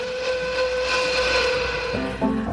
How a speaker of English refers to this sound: Is that an easterly train I hear?